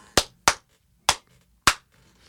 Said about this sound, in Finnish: Tämä voi niinku testata, yleisökin voi kämpillä niinku nyt pistää pausille tämän podcastin ja testata tämmöisellä nopealla kädenläpsäytyksellä se oma huoneen akustiikan